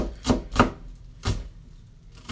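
A knife finely minces onion on a cutting board: four crisp taps in an uneven rhythm, two quick ones, then a pause before the next. No voices.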